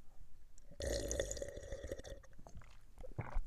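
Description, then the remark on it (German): Wet sipping and gulping sounds of someone taking a sip of water, with a dense slurp near the start followed by scattered small swallows and clicks, no talking. “Naja, oh, nochmal einen Schluck Wasser.”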